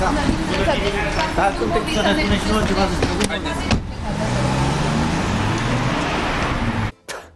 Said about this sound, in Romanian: A urcat cu viteză în mașina de serviciu și a demarat în trombă.